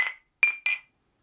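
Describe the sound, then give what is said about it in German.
Three bright, ringing glass clinks in quick succession, clear, each with a short shimmering decay, as glasses are tapped together in a toast. No voices. “jetzt lass uns mal anstoßen ähm, auf die erste Staffel äh, der Panzerknacker”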